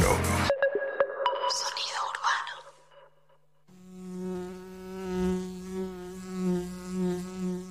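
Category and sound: insect, bee buzzing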